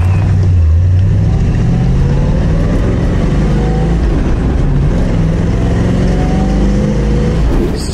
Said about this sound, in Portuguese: confere aí principalmente o estilo e, claro, o ronco do V8.